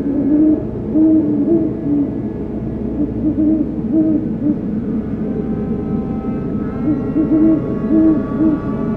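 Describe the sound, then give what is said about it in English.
Deep, soft hoots from a great horned owl repeat in short rhythmic series over a steady low rumble, like aircraft or wind, with no voices present. It was recorded around dusk in October, in an area great horned owls frequent. “In October this year, I've spent a few nights out around dusk in an area I know great horned owls frequent, hoping to finally get recordings of this species in person.”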